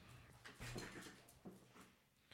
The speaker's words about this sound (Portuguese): A cachorra veio com uma almofada chacoalhando aqui. Sai! Tá querendo rasgar tudo aqui,